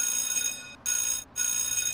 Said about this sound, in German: Ich drückte schüchtern auf den Klingelknopf